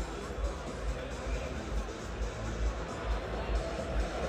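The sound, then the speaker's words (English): A large indoor arena crowd at a UConn versus St. John's basketball game in New York jeers and roars at Hurley in a dense, steady wall of noise, with low rhythmic thumps pulsing roughly twice a second beneath the din. “Crowd is really getting on Hurley.”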